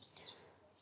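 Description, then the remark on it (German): Faint, high-pitched bird chirps in the background outdoors, a quick twitter near the start, fading into quiet outdoor ambience. “Ihr hört die Vögel im Hintergrund”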